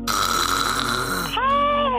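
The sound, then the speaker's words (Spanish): A loud snore fills the moment, a rough rasping inhale that shifts into a higher, wavering tone near the end, with no talking over it. “Las consecuencias pueden ser problemáticas si sufres apnea del sueño, un megáfono, eh, lo que viene a provocar los ronquidos, pues.”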